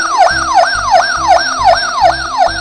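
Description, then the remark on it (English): A fire engine siren yelps rapidly and loudly, its pitch sweeping up and down about three times a second, with a steady electronic buzz underneath and no one talking. “你看这个 fire engine 这里还要打开，里面就会。哦 Fire engine”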